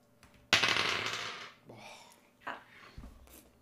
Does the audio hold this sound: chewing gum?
no